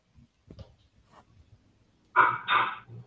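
Soft, low rumbling growls from large dogs at first, then two loud barks in quick succession, with no talking.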